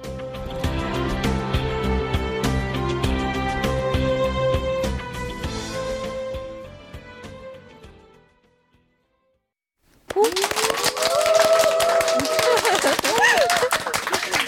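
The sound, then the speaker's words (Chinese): A musical jingle plays and fades into a brief silence, then an audience of young people from China and Korea in a live broadcast hall bursts into dense, steady applause at the TBS 28th anniversary special program, with a voice speaking over the clapping. “好的，非常感谢大家的掌声。”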